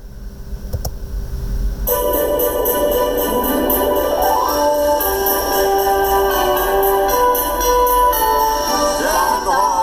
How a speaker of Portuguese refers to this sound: Agora vocês já estão ouvindo os sinos tocarem, né? Porque é Natal.